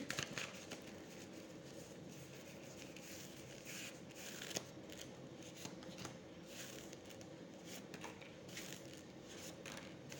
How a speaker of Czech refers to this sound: A já už se dívám na vaši fotku, míchám u toho karty a podíváme se teda spolu, co nám Tarot řekne o tomto partnerském vztahu.